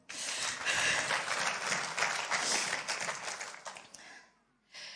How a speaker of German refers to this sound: Dankeschön. Applaus für